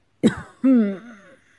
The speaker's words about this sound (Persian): صرفه کرد و بعد دستش را روی گلویش برد انگار میخواست پاپیونش را مرتب کند